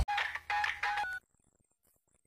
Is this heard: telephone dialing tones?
yes